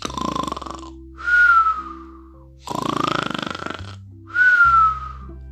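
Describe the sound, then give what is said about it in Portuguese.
Two loud snores in a steady rhythm, each a rough, rumbling inhale followed by a high, falling whistle on the exhale, with no talking: the wolf snoring after going back to bed and falling asleep, in a telling of Little Red Riding Hood (Chapeuzinho Vermelho). “Tendo assim satisfeito o apetite, voltou para a cama, ferrou no sono e começou a roncar sonoramente.”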